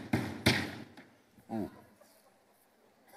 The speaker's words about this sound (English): Satan is knocking at the door. We gotta have a little fun sometimes, but so true. Satan's knocking at the door. This door represents the door of our heart.